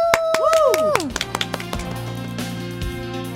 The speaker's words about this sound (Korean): 참여한 모든 아이돌 분들 정말 고생 많으셨고요. 설 명절 동안 즐겁게 해주셔서 정말 감사드립니다. 그런 의미로 우리 박수 한번 치고 넘어갈까요? 박수!